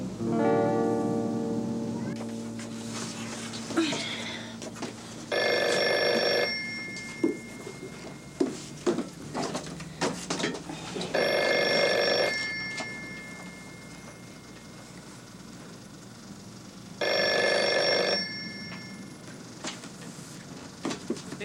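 A telephone bell rings three times at the Librería Interacadémica bookshop, each burst of clattering ringing lasting about a second and repeating roughly every six seconds, fairly loud with faint voices at first.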